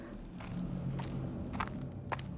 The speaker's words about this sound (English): Hang on, hang on. I'm walking, walking to the back.